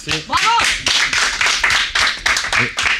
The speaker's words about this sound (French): j'ai 60 ans. 60 ans, on peut tous l'applaudir, merci.